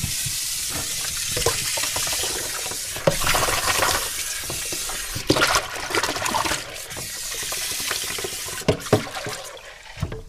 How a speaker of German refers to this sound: Und alle anderen Himbeeren, wo vielleicht auch mal die eine oder andere eine kleine Delle hat oder nicht so toll aussieht, die wasche ich im Eimer und lasse die erstmal ein bisschen im Wasser stehen.